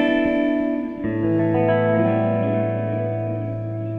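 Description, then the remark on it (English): An electric guitar played through several delays all switched on at once, including quarter-note and dotted-eighth delays, plus hall reverb. A sustained chord rings out, then a second chord is struck about a second in, its notes smearing into a thick, washing cloud of repeating delay echoes that slowly fades. “So if I really want a ton of delay,”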